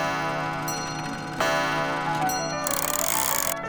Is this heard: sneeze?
no